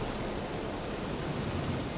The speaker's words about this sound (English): Obviously, still raining, as you can hear.